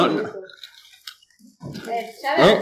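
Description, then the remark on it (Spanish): Crisp, brittle crunches of someone biting into Vidal brand fried-egg flavoured potato chips, with a voice talking around them and a louder burst of crunching at the end. “un buen crujido.”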